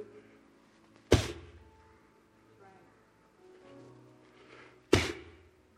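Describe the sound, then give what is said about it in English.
Two loud, sharp slaps, made to demonstrate slapping the air out of dough while kneading, land about four seconds apart, with faint voices murmuring quietly in between. “You ever had to slap the air out the dough?”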